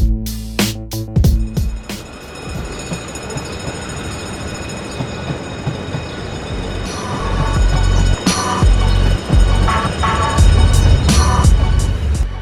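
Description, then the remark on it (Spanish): A train rolls loudly through a railway station, its heavy rumble swelling toward the end, punctuated by metallic clanks and thin, high-pitched wheel squeals. No one speaks. “Las estaciones de trenes de Capital Federal y del Urbano son lugares de reunión y refugio para el rap.”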